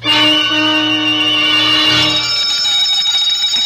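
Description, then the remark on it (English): A loud electric gate bell rings continuously and harshly for a few seconds, an hour before a wedding ceremony, its insistent metallic jangle filling the moment before cutting off and leaving a ringing tail. “There was an hour yet before the ceremony, and suddenly there was a violent ring at the gate bell”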